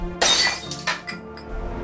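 A statuette, knocked over by a large backpack, crashes onto the floor and shatters, a sudden loud break with bright pieces scattering, then a smaller clatter of fragments settling. Clear, with no voices.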